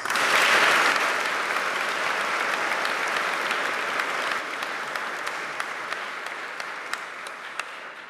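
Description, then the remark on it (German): A crowd applauds three organizers at a school event steadily, a dense wash of clapping that starts strong and holds for about eight seconds, easing slightly toward the end, with a few sharper individual claps standing out late on. “Ich glaube, euch dreien gebührt ein ganz, ganz kräftiger Applaus.”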